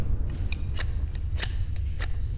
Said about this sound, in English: What is this noise I am hearing? Is that the whittling of the wood?